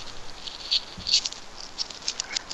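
Light, irregular taps on a phone screen, several soft clicks close by, quiet and unhurried with brief gaps between them and no voices.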